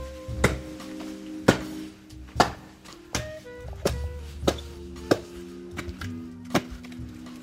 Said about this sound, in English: he's chopping wood with this little axe. It's like Ukrainian village meets suburban.